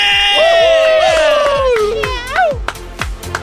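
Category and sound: crowd, people screaming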